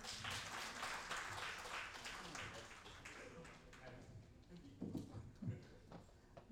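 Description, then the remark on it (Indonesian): A crowd at a discussion event applauds as the panel speakers are introduced, with dense, steady clapping that gradually thins out and fades, while a few voices murmur underneath toward the end. “Tepuk tangan dong.”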